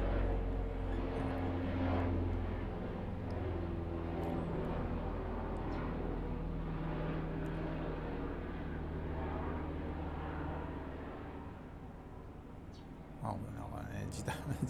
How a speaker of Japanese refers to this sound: また飛行機が来た